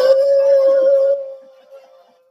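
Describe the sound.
A person lets out a steady, sustained howl like a dog, loud, holding one pitch for about a second before trailing off into a fading tail.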